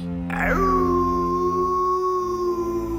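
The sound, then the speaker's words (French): A single long wolf howl rises quickly, then holds a steady sustained tone, loud and clear over a faint low rumble, with no voices present. “Pour trouver le loup, ça ne va pas être compliqué, dit la mère. Il suffit de suivre ses cris.”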